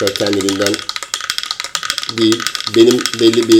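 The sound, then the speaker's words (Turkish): A Russian toy taps out a rapid, steady clatter of small mechanical clicks throughout, running fairly loud beneath a man talking. “bir tane Rus oyuncağı var. Bu genelde böyle psikodelik e, etki kullanılması gereken tavuklar ve bir oyuncak var.”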